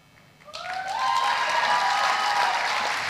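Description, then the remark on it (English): Loud, steady applause from an audience for award recipients at an awards presentation swells up after a brief quiet moment, with a few rising cheers or whoops mixed in at the start, and the clapping continues strongly to the end. “Let's applaud them all.”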